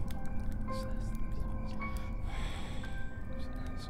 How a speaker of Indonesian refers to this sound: Itu napas bang.